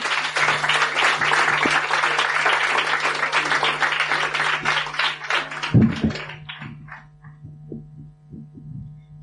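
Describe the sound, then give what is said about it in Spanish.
A crowd claps for the last participant introduced in a contest, a dense, loud burst of applause that gradually thins out and fades into a few scattered claps, with a steady electrical hum running underneath throughout. “Aplauso para”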